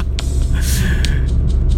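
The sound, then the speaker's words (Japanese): A steady, deep road-and-engine rumble fills the inside of a moving car driving back from a department store in a neighbouring town, continuous and fairly loud, with faint fragments of a voice over it. “まあ今さっきね、まあ、うちの妻と娘にあげるプレゼント用としてねチョコレートを、まあ、隣町のデパートまで買いに行って今その帰りの車の中なんですけども”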